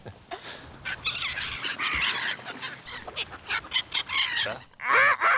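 A crowd of black-headed gulls calling while someone feeds them, a dense, continuous chorus of harsh, overlapping squawks and screeches that rise and fall in loud bursts.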